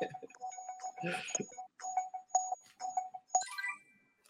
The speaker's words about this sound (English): Hit the buzzer.